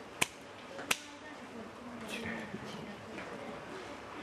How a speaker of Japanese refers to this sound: 二礼二拍手、うんうん、はい二拍手